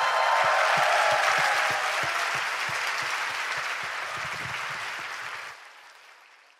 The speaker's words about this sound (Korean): 다시 한번 박수 부탁드립니다.